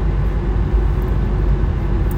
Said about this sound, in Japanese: なんかこう今車で走ってるんで